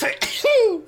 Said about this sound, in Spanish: ¿Qué, qué, qué estornudo tan deprimente.